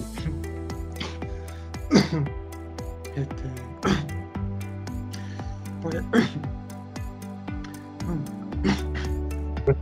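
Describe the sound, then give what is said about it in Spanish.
A few odd, sharp cough- or sneeze-like bursts break out between stretches of a man talking, fairly loud, with a steady hum of background tones underneath. “¿Un estornudo o un toseda? Una, una, una todo extraño.”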